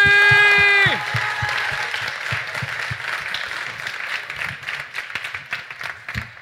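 A loud crowd in Ambly applauds and cheers to make noise for a decibel meter after a countdown, with dense clapping and whoops. It opens with a brief sustained horn-like blast that drops away after about a second.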